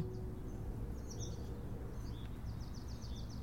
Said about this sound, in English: I can hear the leaves of the trees rustling above me, and there are birds in the branches. I can hear them moving around and squawking.